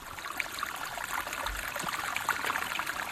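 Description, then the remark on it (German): A small brook high up in Mount Field National Park, Tasmania, babbles and trickles steadily, with a continuous bright splashing texture and little bursts of gurgling water throughout, no voices present. “Ja, das klingt nach einem Bächlein Richtig, das war ein kleines Bächlein ähm, ganz weit oben in, äh, in Tasmanien, im Mount Fields National Park.”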